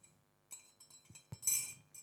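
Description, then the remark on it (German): A spoon stirring tea in a cup, heard as a few faint, light clinks against the porcelain, ending in a brighter, slightly longer scrape-and-clink. No voices. “nun rühr um, rühr um. Achtung, man muss ganz genau hinhören.”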